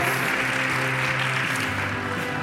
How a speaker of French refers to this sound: Vous pouvez les applaudir et les encourager.